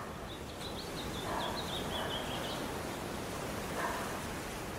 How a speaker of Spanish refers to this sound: Escucha el ir y venir de las olas rompiendo en la playa. Y tú vas caminando sintiendo la arena suave bajo las plantas de tus pies y sintiendo como el agua envuelve tus pies y los refresca cuando revienta la pequeña ola